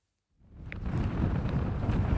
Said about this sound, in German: Am turkana dominiert vor allem ein Geräusch. Der Wind. Der Wind pfeift stets an den Ufern des größten Wüstensees der Welt.